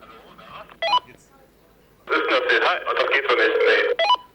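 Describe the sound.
Distorted walkie-talkie audio with a loud burst of squealing feedback over a garbled voice, bracketed by short rising electronic chirps like radio transmit beeps.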